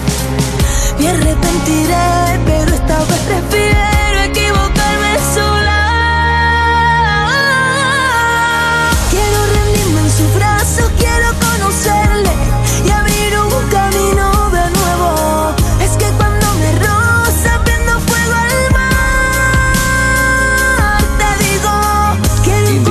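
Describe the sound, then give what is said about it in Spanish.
A pop song by a female artist touring Spain plays loud and steady for the whole stretch, a full band with a melodic vocal line running over a driving beat and sustained chords. “Con sus canciones es capaz de crear un ambiente mágico que te envuelve por completo.”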